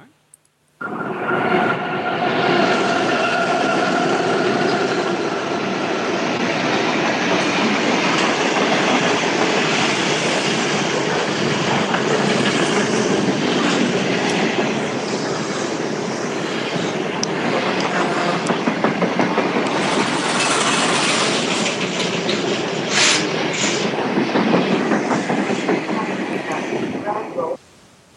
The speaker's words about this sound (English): and that, my friend, was a freight train passing me. I was at a station at work. I saw it approaching in the distance. I got my iPhone out, hit the record button, and just recorded that little bit.